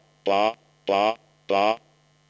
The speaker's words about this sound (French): on entend plus ou moins ba ba ba ba. Euh, on entend que ce n'est pas parfait, hein, ce sont des stimuli synthétiques.